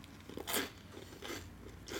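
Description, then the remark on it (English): Crunching of harvest cheddar flavor Sun Chips being chewed, with about three crisp, loud crunch bursts spaced evenly apart and quieter chewing between them, no talking. “I got some got some sun chips of the uh,”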